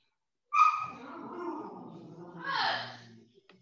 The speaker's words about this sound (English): Yeah, y'all to get him, put him outside or something. That's a dog, ain't it? Yeah, man. You just sounds like put him outside, yo. He sounds sadder than a mother. He done. He done. he He sound like he tired of the bull, man.